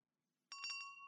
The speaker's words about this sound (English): The bell tinkles as Cytherea enters the shop.